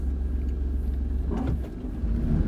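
Steady, droning car-interior noise while driving on a commute to work: a deep continuous engine and road rumble at even loudness, with a faint brief swish partway through and no voices.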